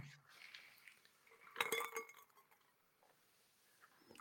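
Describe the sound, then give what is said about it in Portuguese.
Glass cups of gin clink together sharply around the middle, a bright cluster of ringing knocks, with a few fainter taps before and after against a quiet background. “Aqui dá para perceber outros autores de podcasts, por favor, usem copos de plástico em vez de copos de vidro, porque como podem perceber, faz muito mais barulho”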